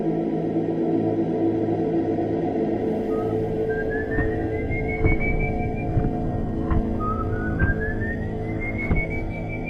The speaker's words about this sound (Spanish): Desde entonces deambula por bosques y llanuras, con su saco muriento donde guardó los huesos de su padre y, como no, su silbido característico, el cual es presagio de muerte.